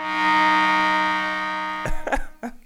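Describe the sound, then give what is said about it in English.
A loud, sustained horn blast signaling halftime, with a buzzy, harmonic tone, holds for nearly two seconds, then cuts off into a few sharp, clattering knocks. “You guys have heard the horn, so you know that means halftime is on the way.”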